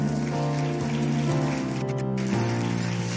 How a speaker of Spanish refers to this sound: Hay alguien que puede darle un fuerte aplauso al Señor.